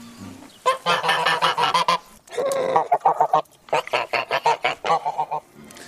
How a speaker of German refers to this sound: Zwischen den einzelnen Gebäuden gibt es auch Obstwiesen und Weiden, auf denen historische Nutzterrassen, zum Beispiel alte, seltene Rinder stehen. Ja, aber eben auch unsere neuen Freunde, die Gänse.